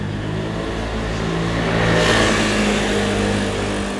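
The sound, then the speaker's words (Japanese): A loud motorbike engine passes by, its droning hum swelling to a peak around the middle and then easing off slightly, with no talking. “ていうのはねバイクが通ってちょっと音大きかったかもですねたまに原付でも音大きな原付ありますよねていうか原付が音大きいのかな”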